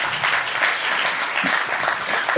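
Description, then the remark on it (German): An audience claps steadily for a couple of seconds, applauding the oldest generation present, the Traditionalists born 1922 to 1945, a dense, even patter of many hands with no voices standing out. “Ja, cool, Applaus.”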